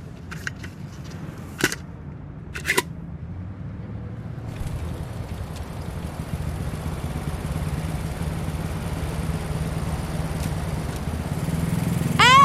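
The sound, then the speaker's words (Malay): A motorcycle engine drones steadily while riding, with a rushing wind roar swelling in after a few seconds and a couple of sharp clicks near the start. “You jangan bawa motor laju-laju tau!”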